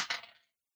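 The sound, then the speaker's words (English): A brief, bright clatter of dice tumbling across a hard table, two quick knocks followed by a short rattle that fades within half a second, fairly quiet and with no voices. “Okay, I'm going to try to do that with a different die.”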